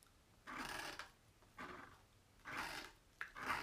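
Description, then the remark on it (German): A green pen scratches across a surface in four short strokes with brief pauses between them as someone draws with it, a dry scribbling sound with no voices. “Ich glaube, diese Stifte malen nicht gut auf dem, deswegen sieht es auch so aus.”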